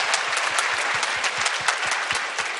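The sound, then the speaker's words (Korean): Steady, dense applause from an audience fills the whole stretch, many hands clapping at once with a bright, continuous texture and no voices on top. “박수 부탁드리겠습니다.”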